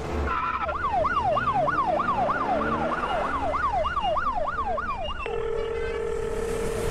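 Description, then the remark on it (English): A police escort siren wails in a fast yelp, sweeping up and down roughly twice a second over steady road rumble, then switches to a flat, sustained tone for the last couple of seconds. “Not with a police escort, buddy. Light 'em up, Switchblade.”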